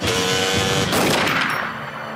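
Pistol shots from the film Nocturne crack amid a dense, noisy wash, with a steady tonal hum underneath at first; a sharper burst hits about halfway, then the din eases slightly toward the end. No one speaks.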